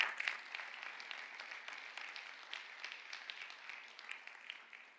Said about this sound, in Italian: Fai un applauso al Signore.